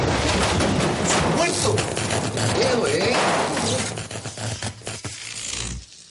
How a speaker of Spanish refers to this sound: En ese momento, el ascensor sufre una sacudida.